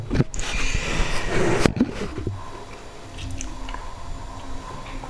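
Muffled handling noise as a recording device is moved and set down on a table, with a couple of sharp knocks, then the sound settles into a quieter room tone.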